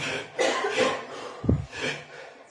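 A person demonstrates a series of sharp, quick breaths, several short hissing bursts with a brief throaty catch in the middle, fairly soft and with no talking.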